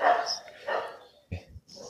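A dog gives a few short, uneven barks mixed with whimpering, spaced across two seconds at moderate volume, with brief quiet gaps between the outbursts.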